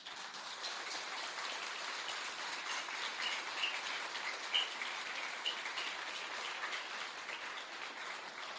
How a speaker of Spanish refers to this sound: Es un buen momento para aplaudir.